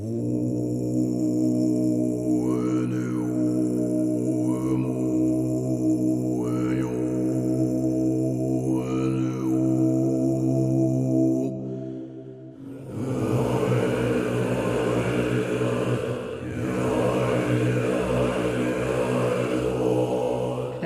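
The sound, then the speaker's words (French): Mongolian khoomei throat singing, a diphonic vocal technique of shamanic origin producing several sounds at once: a deep, steady droning voice with whistling overtones rising and falling above it, sustained for the whole stretch, pausing briefly midway before resuming fuller and richer. “chant de gorge, une technique vocale donc qui permet de, produire plusieurs sonorités séparément, mhm.”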